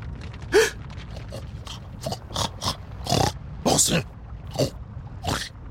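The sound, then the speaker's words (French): A monstrous pig wallowing in a pool of lava grunts and snorts: a run of about eight harsh, breathy snorts in an uneven rhythm, fairly loud against a low rumbling background. “J'étais face à une mare de lave dans laquelle un cochon monstrueux se roulait.”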